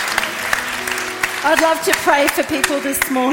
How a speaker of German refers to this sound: Lasst uns ihm einen Applaus geben.